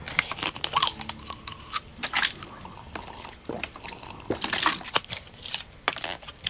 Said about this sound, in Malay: Hmm, sekejap eh, saya nak minum air sekejap.